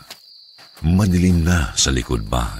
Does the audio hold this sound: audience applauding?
no